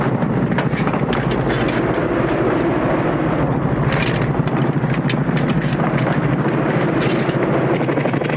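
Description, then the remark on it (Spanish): A loud, steady roar of helicopter engine noise mixed with heavy wind buffeting the microphone as paratroopers jump one after another from the helicopter, constant throughout with no talking. “Uno tras otro, empiezan a saltar del helicóptero.”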